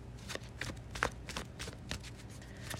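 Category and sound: household object, tarot cards being shuffled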